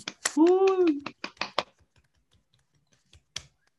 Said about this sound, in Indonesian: Jadi tepuk tangan juga buat SDM.